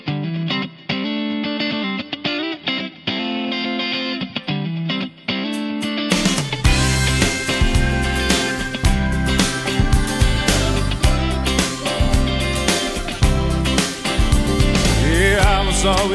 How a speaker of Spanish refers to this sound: Vamos a escuchar ahora Em, una canción, ¿cuál podemos escuchar?